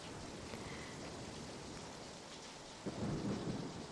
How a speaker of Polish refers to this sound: Tam, po drodze do Ameryki, złapał go i jego towarzyszy wielki sztorm, czyli burza na oceanie.